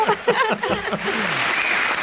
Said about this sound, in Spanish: Oye, mirar a la gente aplaudiendo. ¡Qué maravilla! Qué gusto, ¿verdad? Todos los niños ahí eh, aplaudiendo, todos los papis.